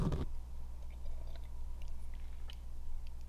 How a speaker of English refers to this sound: I'm gonna take a sip of this dirt water.